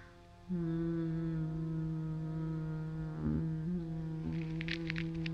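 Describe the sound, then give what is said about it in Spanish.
A steady, low humming voice imitates a buzzing bee during bhramari breathing meditation, starting abruptly after a brief quiet moment and holding an even pitch with only slight wavers throughout. “Y empieza el sonido de la abeja.”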